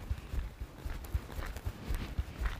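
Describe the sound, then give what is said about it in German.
Soft, steady footsteps tap along at a brisk walking pace, each step a light thud, with faint scuffs and no talking; a person walking on the balls of the feet with the toes pulled up away from the sole. “und locker weitergehen und setzen sofort wieder rein, zehn Zehenspitzengang und ziehen die zehn Spitzen aber weg von der Fußsohle und gehen in den Ballengang. ich habe schon sechs.”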